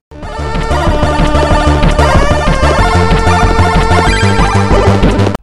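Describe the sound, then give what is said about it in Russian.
Loud, blaring keygen music from a crack program for pirated software: a dense, chaotic wall of clashing electronic tones over a steady pounding beat, playing at full volume for several seconds before cutting off abruptly. “Э, и да, они, сука, обязательно очень громкие и кричат прям, прямо в душу, что вы сраный пират и скачали кряк.”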